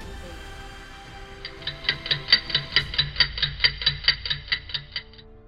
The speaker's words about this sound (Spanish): En esta ventana de historias miramos alrededor y solo el sonido de un reloj marcaba su tiempo.